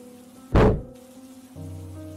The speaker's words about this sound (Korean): 무언가가 문에 부딪히는 소리가 들렸다.